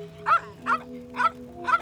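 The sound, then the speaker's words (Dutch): A dog named Vicky, tail raised, barks four times at an even, steady pace, each bark short and moderately loud, with a faint constant hum running underneath. “Met zijn staart omhoog staat hij te blaffen.”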